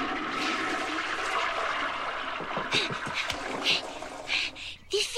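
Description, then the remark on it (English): A toilet flushes, a steady rush of water swirling clockwise down the drain that gurgles and sputters toward the end as it drains away. “We need you to check your sinks and toilets and tell us which way the water is going, and please, stand clear.”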